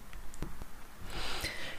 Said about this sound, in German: Entschuldigung, also ich habe Heuschnupfen und ähm, deswegen muss ich ständig zwischendurch Nase putzen.